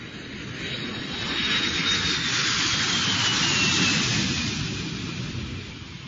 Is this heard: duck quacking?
no